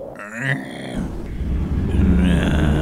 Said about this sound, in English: That's, that's what a giraffe sounds like.